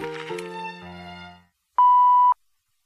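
A short, steady electronic page-turn beep in a read-along of the Dr. Seuss book Mr. Brown Can Moo! Can You?, a single mid-pitched tone lasting about half a second, sounds on its own after a brief musical chime fades to silence.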